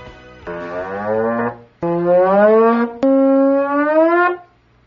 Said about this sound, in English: I've got one this morning, and it's a teenager who filmed himself surprising his mom by playing his trombone at the oddest moments. She seems a little bothered at first, but by the end, she's about having as much fun as the kid is.